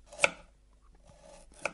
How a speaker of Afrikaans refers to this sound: Gogo skil en kap 'n wortel. Sy sit dit in die pot wat op die stoof prut.